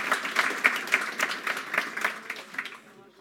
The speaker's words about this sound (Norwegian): En applaus til